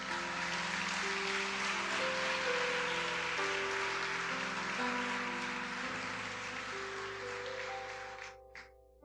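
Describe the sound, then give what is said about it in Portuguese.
An audience claps for the Holy Spirit in steady, dense applause over sustained organ or keyboard chords, the clapping holding strong for several seconds before thinning out and ending in a few scattered claps. “Aplauda o Espírito Santo de Deus.”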